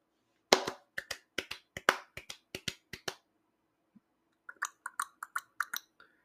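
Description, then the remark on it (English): Rhythmic clicking imitates a galloping horse: crisp clicks in quick pairs for a few seconds, a brief pause, then a softer, faster run of clicks. Fairly loud, with no talking. “Is that a gallop sound?”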